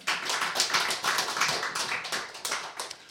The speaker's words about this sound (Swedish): En applåd är han också värd.